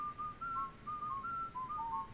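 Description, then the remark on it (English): A person whistles a short, wandering tune of quick notes and little slides, clear, with a faint low rumble of room noise underneath and no talking. “whistling has completely derailed my train of thought.”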